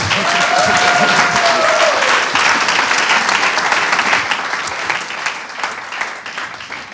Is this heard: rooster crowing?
no